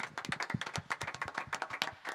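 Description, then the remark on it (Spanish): A short burst of applause on a show, in tribute to Lino Ariel Rosario: many crisp, overlapping hand claps in a quick, uneven patter, fairly loud and steady throughout, with no voices. “Un aplauso para Lino.”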